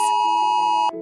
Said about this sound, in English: An emergency alert sends an urgent and distinctive siren like sound to your mobile phone. It looks like this and sounds like this